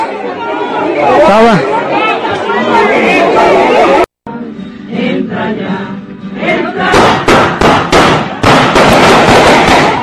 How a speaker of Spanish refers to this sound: Tiraron balazos, tiraron balazos, tiraron balazos aquí en el, en el panteón, tiraron balazos. Hubo varios heridos, hubo varios heridos. Tiraron balazos.